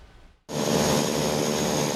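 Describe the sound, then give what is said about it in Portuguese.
After a brief near-silence, the loud, steady engine roar of an Argentine Coast Guard airplane taking off in the morning for a search cuts in abruptly and holds, a broad rushing drone with a high whine on top, continuous with no voices. “O avião da Guarda Costeira Argentina decolou hoje pela manhã para mais um dia de buscas.”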